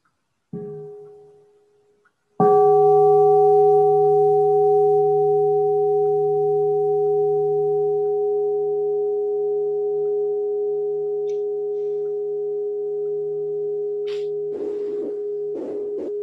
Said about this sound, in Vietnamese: xin sư cô thỉnh một tiếng chuông trước khi mình đi sang cái giáp chi thứ năm